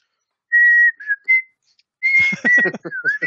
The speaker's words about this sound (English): It's just it's just the most irritating sound, isn't it? I'll tell you what, is it just a whistle or is it any kind of is it hum as well?